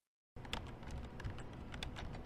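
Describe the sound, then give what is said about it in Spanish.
Rapid typing on a computer keyboard with a braille display by a blind man who is programming, a steady stream of crisp key clicks with no pauses and no talking. “escribiendo en el teclado con línea braille.”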